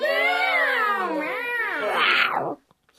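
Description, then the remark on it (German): Several cats meow and yowl at once in a loud, overlapping chorus of wavering pitches, lasting a couple of seconds before cutting off abruptly into near silence. “Wo gehen denn deine Katzenfreunde hin?”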